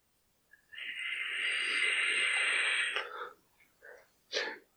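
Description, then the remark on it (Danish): An e-cigarette puffed right at the microphone: a steady, airy hiss with a thin high whine for about two seconds, cut off sharply, then two short breathy exhales. “Men det her, det er min uh, e-cigaret, ikke også? Ja. Og den lyder sådan her.”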